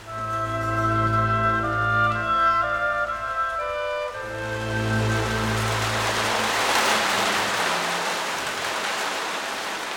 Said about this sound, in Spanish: La lluvia nocturna azota la ventana del cuarto de